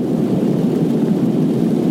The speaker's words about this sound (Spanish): Caray, está lloviendo de caray. O sea, os decía que no llovía en Pontevedra, pero cuidado, cuidado, menudo viernes nos espera de lluvia.